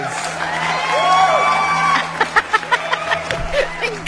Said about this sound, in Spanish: cantan esos aplausos.